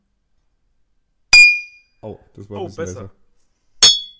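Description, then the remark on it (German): Two sharp, bright clinks of something hard striking a thick IKEA drinking glass, each with a short ringing tone, a few seconds apart, with a person's brief remark between them. “Hier mein dickes Ikea-Glas.”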